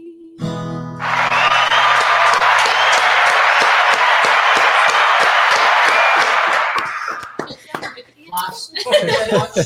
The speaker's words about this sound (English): By the way, you can kind of see there's actually forty-eight thousand out there cheering us on.